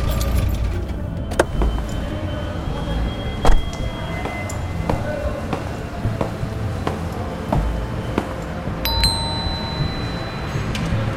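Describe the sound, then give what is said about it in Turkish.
An old car's engine idles with a low steady rumble as it is parked under an old walnut tree, the only tree in a small square, broken by a few sharp clicks and thuds, then a brief metallic jingle of keys near the end. “Kapının açıldığını, bizim yakışıklı savcının içeri girdiğini görünce Emektarımı küçük meydandaki tek ağaç olan yaşlı cevizin altına park edip Zekai'nin evine yöneldim.”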